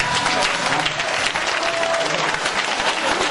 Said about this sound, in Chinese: 来，掌声鼓励一下。